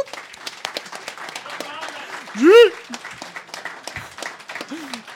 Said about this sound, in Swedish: Det är också värt en applåd för fan.